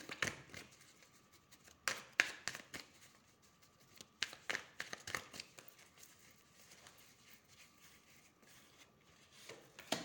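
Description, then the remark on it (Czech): Tarot cards being shuffled during a card reading, in irregular bursts of crisp, papery riffling and flicking, some louder swishes among softer rustles, with no one speaking. “A já už mám před sebou uh, vaši fotku, míchám u toho karty.”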